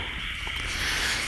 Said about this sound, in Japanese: カエルの声入ってるよな多分